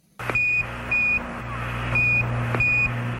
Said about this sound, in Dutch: Dat is het geluid van de NASA Comcheck. Het piepje dat te horen is op de communicatielijn tussen de ruimtevader en het commandocentrum.